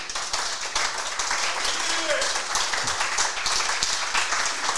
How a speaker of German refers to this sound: das hat sich, glaube ich, mal einen Applaus verdient, oder?